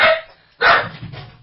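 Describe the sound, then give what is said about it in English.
The speaker's own male dog barks twice in quick succession from back there, sharp and fairly loud, with a softer trailing bark after the second. “He's barking back there.”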